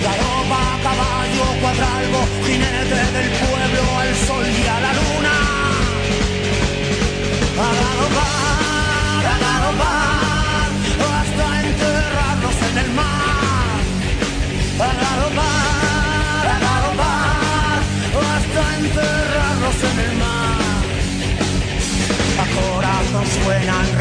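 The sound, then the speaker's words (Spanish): A recorded Spanish-language song setting a poem, from a 2003 album, plays at full volume, with a band's steady harmonic backing and a lead vocal line weaving melodic phrases over it throughout. “vamos a dejar que suene el poema de Rafael Alberti en la voz de …”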